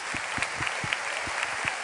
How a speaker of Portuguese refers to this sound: Let's give Jesus a hand of praise. Dê uma salva de palmas ao Senhor Jesus.